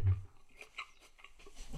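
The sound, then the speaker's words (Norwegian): Someone chews a bite of apple, with a handful of soft, wet crunches in an uneven rhythm. It's fairly quiet, and no one speaks. “Skal folk bare høre på at du er et eple?”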